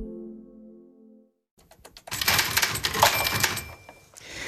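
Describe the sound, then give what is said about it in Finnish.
After a short sustained tone and a brief pause, a few sharp clicks lead into a dense, rapid clatter of typewriter keys, fairly loud, continuing to the end. “Kirjoituskone yhdessä laskimen ja puhelimen kanssa oli merkittävässä asemassa, kun 1800-luvun lopulla kaupat, konttorit ja oikeastaan koko talouselämä alkoi saada aivan uutta boostia.”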